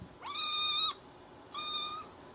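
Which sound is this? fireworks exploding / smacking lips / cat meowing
cat meowing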